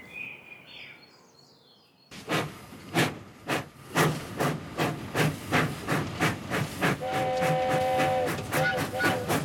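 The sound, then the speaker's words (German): A steam engine hisses in steady, rhythmic, loud bursts of puffing steam after a quiet outdoor opening with faint birdsong; a high whistle tone sounds near the end. “Die Erfindung der Dampfmaschine.”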